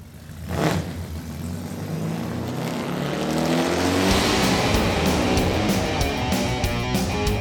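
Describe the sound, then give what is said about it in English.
A car engine cranks and catches, then revs up loudly and steadily, its pitch climbing and holding in a sustained roar with no voices. “Okay, start your engine!”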